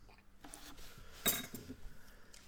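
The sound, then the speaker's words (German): A single bright clink of wine glasses touching in a toast, short, with a soft ringing tail and faint clatter of tableware around it. “Aber, also gut. Prost. Cheers.”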